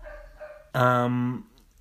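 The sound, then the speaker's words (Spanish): A dog lets out one loud, drawn-out bark lasting about half a second, with quieter faint whining before it and near silence after. “Pulp Fiction antes de que me interrumpa mi puto perro porque está ladrando, cabrón.”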